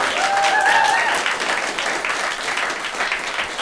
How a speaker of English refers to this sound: Uh, who thinks that Twitter and Facebook and such should take a strong hand in severely limiting online speech? Those of you think so, clap.